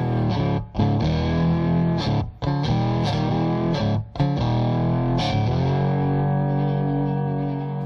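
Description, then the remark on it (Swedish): A Rickenbacker "Frying Pan" electric lap steel guitar, played lying horizontally, plays loud, sustained, gliding notes in a continuous phrase, with a few brief breaks between chords and a ringing, slightly distorted tone. No one speaks. “Och den kallades för frying mm. pan för att den såg ut ungefär som en stekpanna.”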